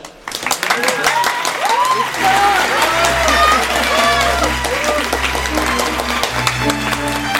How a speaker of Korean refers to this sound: 네, 신랑 입장에 이어 오늘의 주인공 신부 입장이 있겠습니다. 큰 박수로 축하해 주십시오. 신부 입장.